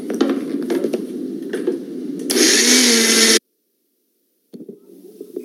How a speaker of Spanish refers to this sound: Ya tengo en la licuadora los jitomates que cocimos, un pedazo de cebolla, dos ajos y un poco del agua de la cocción de los jitomates. Lo licuamos